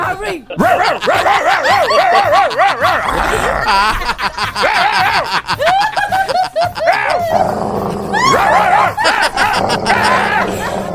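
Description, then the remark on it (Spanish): Voices imitate a dog's barking with repeated rough, bark-like yelps, loud, mixed with snickering laughter and chatter throughout. “es como ladrar, ¿no?”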